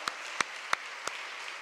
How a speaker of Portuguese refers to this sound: Então vamos aplaudir o Senhor por esses guerreiros. Aleluia!